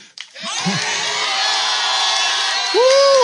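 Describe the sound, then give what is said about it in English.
A church audience erupts into loud, sustained shouting of praise and thanksgiving after a count of one, two, three, a dense wall of overlapping voices with whoops and higher yells rising above the roar, holding steady for several seconds. “We got to have like a real ugly, nasty, loud, embarrassing praise and thanksgiving right in here now.”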